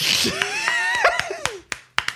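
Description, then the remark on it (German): Brief applause from Americans: a handful of sharp, scattered claps at an uneven pace, mixed with high whooping, sliding cheers near the start, ending on a few isolated louder claps. “An der Stelle folgt immer Applaus von Amerikanern.”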